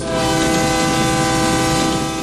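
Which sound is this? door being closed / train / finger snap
train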